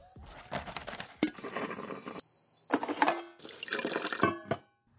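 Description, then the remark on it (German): Water splashes into a glass in bright bursts, with a sharp clink of glass near the start and a ringing tone as it fills. Nobody speaks. “So, jetzt haben wir alle unseren Kaffee, unser Glas Wasser.”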